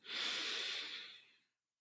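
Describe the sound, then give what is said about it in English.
A single slow, airy breath drawn in through the nose during a mindfulness breathing practice, a soft hissing rush that swells quickly and fades over about a second and a half, fairly quiet with no talking. “Focusing on that in breath, breathing in through your nose”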